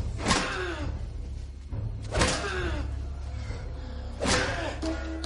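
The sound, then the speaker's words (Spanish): Three heavy blows of a frying pan striking a man, roughly two seconds apart, each a loud sharp thwack with a brief ringing tail, over a steady low hum and no speech. “Coge una sartén. Lo golpea.”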